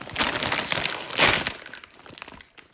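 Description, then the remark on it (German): Crisp crinkling and rustling of a plastic snack packet being torn open, with a sharp burst in the middle before the rustle tapers off into a few quieter crackles. “So muss ich das kurz aufmachen.”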